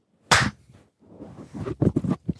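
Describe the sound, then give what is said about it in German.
A single sharp, loud hand clap cracks out, then after a brief pause a loose cluster of softer, uneven claps and shuffling noises follows, as people clap together on a count of three. “So, und jetzt klatschen wir.”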